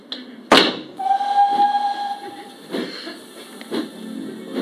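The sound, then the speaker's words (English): A sudden hissing burst, then a steam train whistle blows one steady, sustained tone while the engine chuffs and hisses on, fairly loud, with no voices. “I started early on the Monday and caught the 9.13 train to Waterloo.”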